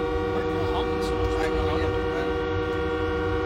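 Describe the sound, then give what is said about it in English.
Loud, sustained horns of truckers occupying downtown roadways blare together in a steady, overlapping, unbroken drone, with faint voices murmuring underneath. “Maybe I'll just wait till the honking subsides.”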